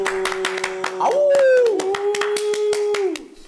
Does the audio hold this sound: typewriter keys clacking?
no